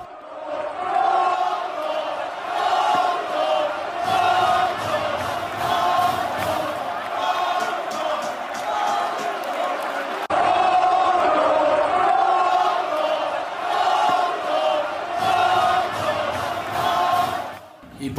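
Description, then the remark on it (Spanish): A huge football stadium crowd chants racist insults loudly in unison at a Spanish league match between Real Madrid and Valencia, aimed at Brazilian player Vinicius Junior. Voices rise and fall in a steady rhythmic roar that fills the whole stretch without pause. “y por, si, por si no alcanzan a distinguir, hay una versión afuera del estadio, desde antes de que llegara, para que vean también cómo está el grito, justamente.”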